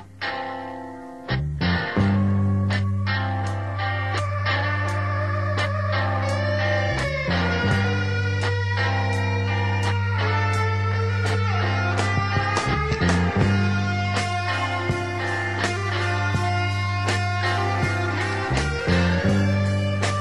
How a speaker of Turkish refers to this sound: Ee, kısaca ilk şarkıyı dinleyelim isterseniz. Bu uyuşturucu hakkında olan ve aslında uyuşturucunun etkilerinden bahseden şarkı.